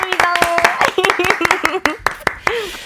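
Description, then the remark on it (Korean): Three people clap together in a quick, uneven burst of sharp claps lasting a few seconds, with voices talking and laughing over the applause. “박수를 한 우리 세 사람.”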